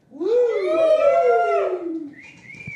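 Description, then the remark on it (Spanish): A single long, wavering barn owl screech, loud, rising and then sliding downward for about two seconds, followed by a brief fainter high-pitched tone. No voices are heard. “Oigan, que viene la lechuza hoy.”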